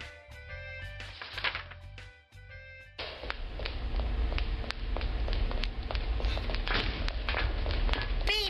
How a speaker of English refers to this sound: They began to hear footsteps and tried to follow them as closely as possible.